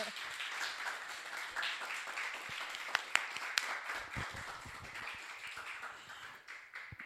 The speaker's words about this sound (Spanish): un aplauso para...